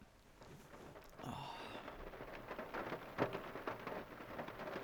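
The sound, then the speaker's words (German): Heavy rain pours down steadily, a dense hissing wash with scattered louder drops and splashes, rising slightly in intensity partway through, with no voices. “Okay, das ist aber, das ist aber ordentlich geregnet bei dir, ne?”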